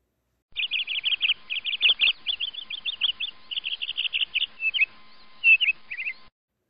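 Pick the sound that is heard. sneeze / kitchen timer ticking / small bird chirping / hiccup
small bird chirping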